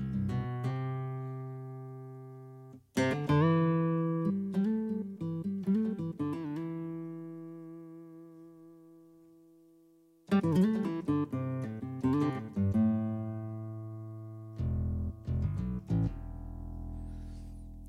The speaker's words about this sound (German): Genau, jetzt also wieder die Akustik-Gitarre.